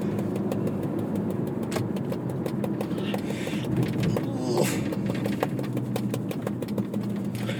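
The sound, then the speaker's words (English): A car engine idles, a steady low rumble that holds evenly for the whole stretch, with light ticking and rattling layered faintly above it. “Oh, that car fucking hates me.”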